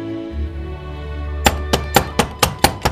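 Knocking on a door again, more urgent and louder than an earlier knock: seven sharp, loud raps in a quick, fairly even rhythm, starting after a low, steady background drone. No one speaks.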